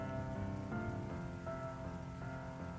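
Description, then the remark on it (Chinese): Heavy rain pours in a steady, dense hiss with no break, while soft sustained musical tones shift pitch every half second or so beneath it. No voices are heard. “可那些无端的悲悯，还有你，在这个暴雨如注的日子，几乎就要摧毁我。”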